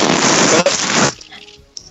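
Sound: sneeze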